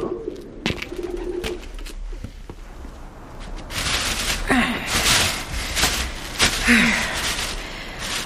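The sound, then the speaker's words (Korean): Many pigeons coo softly in a few low, throaty calls near the start, followed by a busier stretch of outdoor noise with scattered sharp clicks and flutters, as people walk past the pigeons. “저게 다 뭐예요? 비둘기.”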